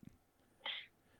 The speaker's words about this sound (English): Bless you.